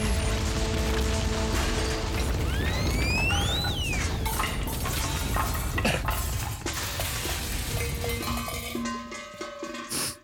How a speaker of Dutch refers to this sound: Explosie.